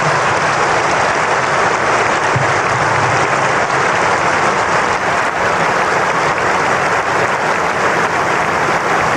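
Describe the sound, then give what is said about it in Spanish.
A crowd at the funeral service for Vicente Fernández (Chente) claps in sustained, dense applause. The loud, steady wash of many hands keeps going without a break and never fades, with no voices standing out above it. “Vamos a darle un grande aplauso.”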